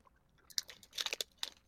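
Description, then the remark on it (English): Crunchy chewing of Beskidzkie brand paprika-coated peanuts, a quick series of crisp, bright crunches and bites packed together over a couple of seconds, with no talking. “Man, I'm eating these.”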